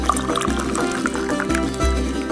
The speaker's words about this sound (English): If you know anything about Iranians, they don't do anything without first grabbing a cup of tea, or as they call it, chai. So pour yourself a cup